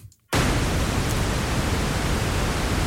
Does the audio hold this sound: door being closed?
no